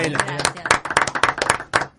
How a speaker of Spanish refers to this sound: Un aplauso. Bienvenida.